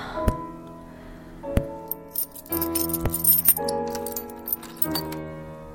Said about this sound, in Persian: اوه چشمام با دستم هماهنگ نیستن نمیتونم کلیدو آه باز شد